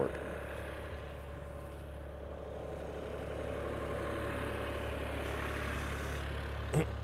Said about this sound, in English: I think I'm gonna pull that truck up.